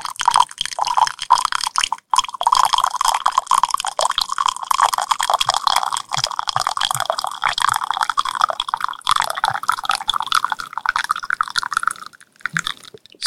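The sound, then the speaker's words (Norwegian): Liquid glugs and splashes steadily as it is poured close to the microphone, a continuous bubbling gurgle lasting about twelve seconds before stopping abruptly. No one speaks. “Det er sånn klukk, klukk, kluk, klukk, klukk foran uh, mikrofonen.”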